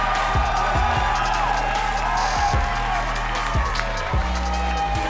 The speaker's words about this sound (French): Une bonne belle applaudissement